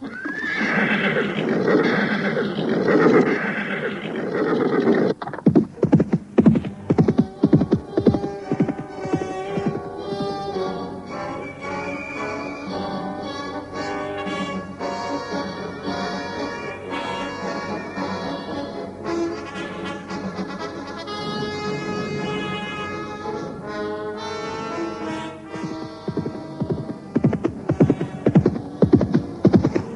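Horses whinny and neigh loudly while hooves clip-clop in a steady, rapid rhythm as four riders set off on horseback from the village of Kurawan, with a low hum running underneath throughout. No one speaks.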